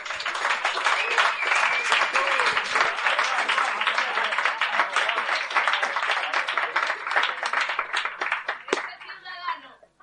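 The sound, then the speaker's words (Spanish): A crowd applauds loudly and steadily for a performer at a verse competition final, a dense wash of many hands clapping, with cheers mixed in, before tapering off near the end as a voice begins. “Un aplauso muy fuerte para Ciudadano Tinta.”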